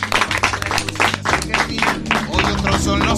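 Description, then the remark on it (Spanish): Sustained applause from a large live audience bidding farewell at the end of a COPE radio programme, dense, with many hands clapping at once and a steady low hum running underneath. “a este fabuloso público que nos acompaña y que despide con este aplauso que escuchan en los micrófonos.”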